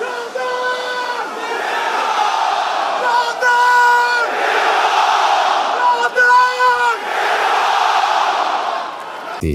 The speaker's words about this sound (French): Tout le public crie Jordan, t'es mort.